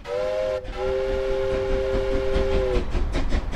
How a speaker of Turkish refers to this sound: O halde hadi bakalım atlayın trene çünkü kalkmak üzere.